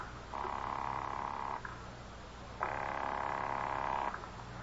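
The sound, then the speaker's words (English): A telephone call to a home rings twice, each ring a steady buzzing trill lasting over a second, separated by a short pause, with no voices and nobody answering. “Dorothy always picks it up on the second ring.”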